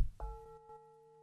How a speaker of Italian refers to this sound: Anche quando parliamo del contatto, prendiamo per esempio il suono della campana.